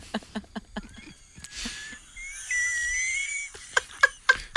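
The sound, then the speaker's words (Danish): A kettle whistles as water boils, a steady shrill tone that wavers in pitch for over a second, with sharp clicks and taps just before and after it. “så tror jeg, vandet koger igen.”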